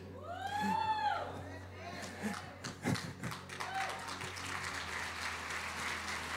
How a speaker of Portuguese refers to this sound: Você pode aplaudir, só não pode cutucar ninguém agora, tá?